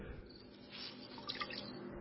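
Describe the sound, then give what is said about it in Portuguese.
Water drips and trickles softly from a wool fleece wrung out by Gideon, the dew water filling a bowl, a cluster of small bright drops falling over a faint, steady wash of liquid with no talking. “e dela saiu água, que deu para encher uma tigela.”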